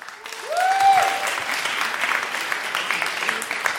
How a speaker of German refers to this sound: Erstmal euer Applaus für die Frage